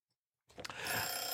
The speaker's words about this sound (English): There you go. There's the timer. And that that's the last topic. Uh, what am I doing with the timer? Ah! See, the thing is, I always want to like push it to make it stop, but if you actually do anything with it, it actually just extends the ring.